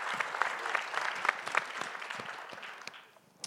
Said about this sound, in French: Je vais applaudir moi aussi. Merci.